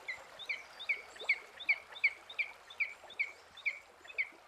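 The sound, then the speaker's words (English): Birds calling with a steady series of about a dozen short, high chirps, evenly spaced roughly every half second, bright and clear over a faint background hiss, with no voices. “Um, you hear the birds, ah, ah, ah, ah.”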